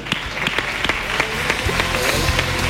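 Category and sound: crowd, applause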